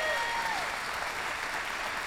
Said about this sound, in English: If that's you, give the Lord a clap offering this morning. Amen.